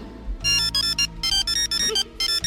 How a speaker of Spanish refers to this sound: Mira qué timbre más gracioso, ¿eh?